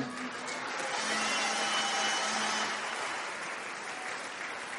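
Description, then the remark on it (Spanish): An audience in Venezuela claps steadily, a dense wash of many hands applauding at once, holding loud for most of the stretch before easing slightly toward the end, with no voices heard. “Caballeros, solo escuché aplausos femeninos. Aplauda porque si no se va a meter en un lío.”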